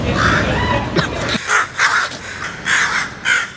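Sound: crows cawing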